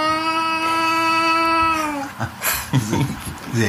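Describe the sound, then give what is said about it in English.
Someone imitates a child's wailing: a loud, sustained, steady-pitched wail held for about two seconds before sliding down, followed by chatter. “I mean, this kid like wailing every night. Yeah. Just really weird. I, I want to hear your impersonation of ah!”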